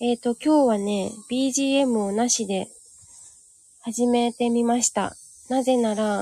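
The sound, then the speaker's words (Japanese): Cicadas drone in a steady, high-pitched buzz outside in front of a house, faint but unbroken beneath a woman talking into the microphone, and still audible on their own when she pauses. “あの、セミの声が結構うるさいかなどうだろう我が家の前はね、”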